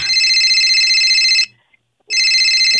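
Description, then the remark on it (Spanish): A cell phone ringtone rings loudly in two bursts of bright, warbling electronic tones separated by a short pause, with no voices. “Si en este momento suena tu celular y miras que es tu ex, ¿contestas o no”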